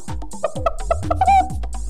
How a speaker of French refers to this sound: Alors les amis, vous aimez les animaux Écoutez la poule